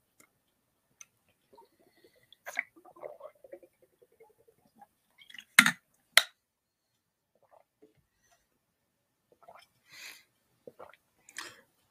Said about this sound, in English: Hold on, let me take a sip.